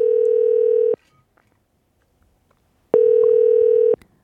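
A telephone ringback tone sounds twice as a radio show calls a listener. Each steady buzzing burst lasts about a second, separated by a two-second silence. The call goes unanswered. Clear, with no talking over it.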